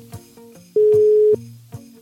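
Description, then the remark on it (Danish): A single loud, steady telephone ringing tone sounds for about half a second, standing out clearly over quieter tonal music in the background, as a phone call is placed to someone celebrating a birthday on 5 December. “Men allerførst, så ringer jeg til”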